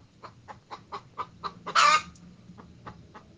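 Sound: hens clucking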